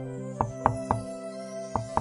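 Knocking on a door: three quick, firm raps, a short pause, then two more, sounding over a steady, soft tonal music bed with no voices.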